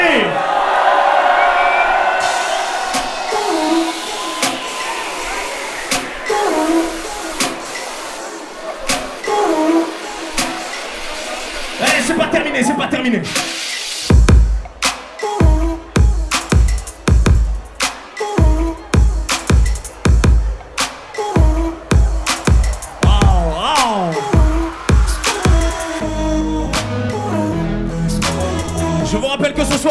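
A large festival crowd cheers and yells loudly in a dense, sustained roar, called on to make noise around a wall of death, which gives way about halfway through to pounding music with heavy, regular bass beats.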